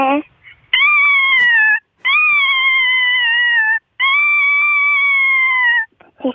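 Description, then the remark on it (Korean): A third-grade elementary schoolchild imitates the cry of a kitten starving for 100 days, with three long, drawn-out wailing meows, each steady and whiny with a slight wavering pitch, separated by brief pauses and delivered loudly. “그 새끼 고양이가 100일 동안 굶주릴 때 내는 소리예요.”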